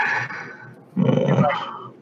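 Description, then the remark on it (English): A person makes a rough, growling roar with their voice, one sustained gravelly burst, preceded by a softer breathy rumble. “Roar.”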